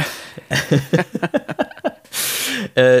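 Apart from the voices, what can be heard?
sneeze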